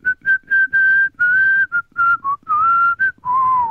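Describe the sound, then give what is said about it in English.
A person whistles a short tune, a quick string of about a dozen clear notes rising and dipping in pitch, ending on a longer held note, with no talking. “Just the, bit me, the bit of me whistling.”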